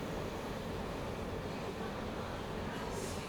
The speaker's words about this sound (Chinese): 除了 podcast 以外，我也喜欢火车驶过轨道整幕的轰隆声，规律、稳定又充满了节奏感。而且火车的声音，尤其跟捷运那种高速滑行在轨道上只追求效率的引擎运作声很不一样。多了些仪式感，多了些从容，甚至还有点浪漫。